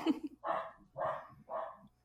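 dogs barking

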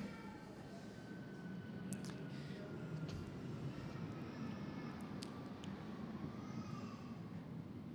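airplane passing overhead

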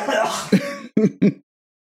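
throat clearing

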